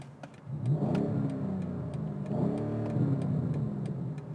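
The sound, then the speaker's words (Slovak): A BMW M850i Convertible sports car with a V8 engine (390 kW, 530 hp) revs up twice in throaty surges, with sharp crackling pops from the exhaust and a steady ticking running through, fairly loud. “má klasické pukanie smeroviek a všetko toto, ale má to pukanie do výfuku.”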